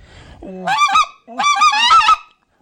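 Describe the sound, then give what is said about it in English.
Two loud bursts from a wide-open specklebelly goose call fitted with 5/8-inch guts, each a rapid series of high, yodeling cackles with rising and falling pitch, separated by a brief pause. “So very user-friendly spec call. Uh, it's plenty loud.”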